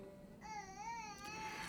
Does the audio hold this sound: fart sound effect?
no